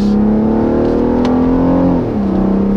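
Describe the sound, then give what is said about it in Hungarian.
A car engine revs loudly as it accelerates, its droning pitch climbing steadily before dropping briefly near the end like a gear change, with no voices. “Ezt a megnyugtató hangot hallhatta véletlen Magnus Brunner, amikor a hetes szolgálati bmw ével egy magánprogramra igyekezett szombat délelőtt”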